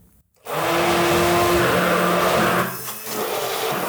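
An immersion blender with a child safety lock whirs on abruptly after a brief pause, running loud and steady with a harsh motor drone that wavers slightly as it churns, with no talking.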